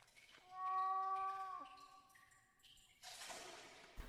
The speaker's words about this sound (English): We reach the basement wall. The cat seems to be behind this wall.